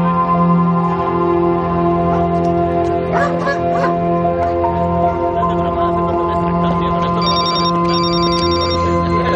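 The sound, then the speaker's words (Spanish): A man's telephone rings steadily as he heads back to his car, its tone sustained against a dense, layered musical background that stays loud throughout, with a few brighter chiming accents partway through. “Abatido, Ben se dirige de nuevo a su coche cuando le suena el teléfono.”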